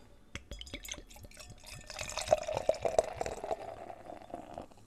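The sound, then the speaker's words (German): Sounds of a bottle of Helles beer being handled and opened with a few sharp clicks, then a steady pour into a glass with a rising gurgle and fizz, no voices. “Machen wir das Ganze mal auf und geben es mal ins Glas.”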